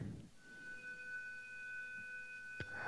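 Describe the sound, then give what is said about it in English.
A fire alarm sounds as a steady, unbroken high-pitched tone that holds for nearly three seconds, with a brief knock near the end and no one speaking. “There is a fire alarm, and I have to go outside.”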